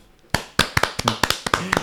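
A short burst of hand clapping from just one or two people, about nine sharp, close claps in an uneven rhythm after a brief quiet moment.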